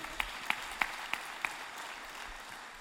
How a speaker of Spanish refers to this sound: Un aplauso